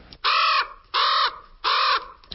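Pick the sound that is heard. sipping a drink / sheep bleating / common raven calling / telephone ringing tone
common raven calling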